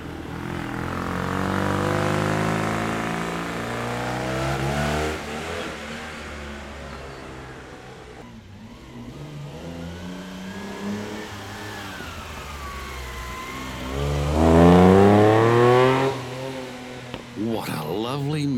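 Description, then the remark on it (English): Rally cars accelerate hard on tarmac during the Targa Florio Australia rally at Tyabb Airport, Australia, engines rising and falling in pitch as they rev through gears, with one car growing loud before roaring past near the end. “I've just returned from watching a segment of the Targa Florio Australia at Tyabb Airport.”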